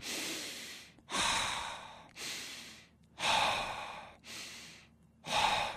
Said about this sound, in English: So that is hyperventilation. Okay. okay. And that can make us dizzy,